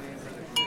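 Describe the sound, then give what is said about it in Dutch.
A single bright clink of glasses touching in a toast, followed by a short high ringing tone that lingers over a low murmur of background voices. “Proost!”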